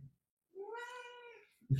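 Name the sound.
kitten meowing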